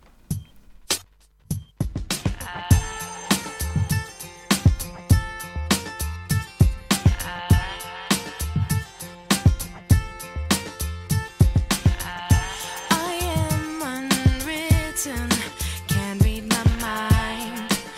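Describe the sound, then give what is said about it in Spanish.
An upbeat pop song, the closing song of a romantic comedy film, with a steady, punchy drumbeat and bright layered synths and harmonies, starting with a few sparse hits before the full groove kicks in, played loud with no talking over it. “Es una de esas canciones pop que.”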